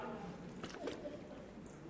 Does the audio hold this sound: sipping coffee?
no